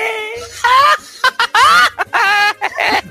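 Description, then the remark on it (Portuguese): A person doing an impression of another person's voice makes sounds like clucking chickens, a run of short, squawky, pitched vocal bursts in uneven rhythm, loud, with a laughing quality between the calls. “É, é boa, parece umas galinhas.”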